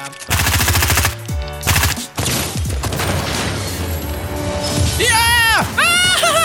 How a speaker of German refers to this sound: Fasziniert beugte sich Betty vor, als Olivia auf einen Busch anlegte, und den letzten Gegner mit einer gezielten Salve ins virtuelle Jenseits beförderte.